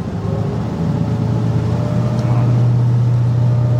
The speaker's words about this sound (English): Back on the coastal patrol boat, we change course safely away from the Russian fleet. What happens if we don't turn?